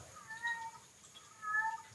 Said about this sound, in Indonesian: Suara kucing lucu katanya.